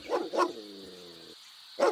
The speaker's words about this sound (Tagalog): Nasisilip ng kanyang ulo ang loob ng lupain, ngunit sampung minuto ang nakalipas ay wala pa rin tumutugon, liban sa malalakas na kahol ng aso na nagmumula sa likod ng bahay.